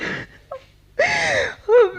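A woman sobs tearfully up close, her voice breaking into three short, wavering wails with shaky breaths in between and no words spoken.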